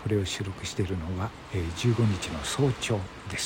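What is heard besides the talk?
ocean waves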